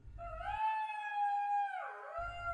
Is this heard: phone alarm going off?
no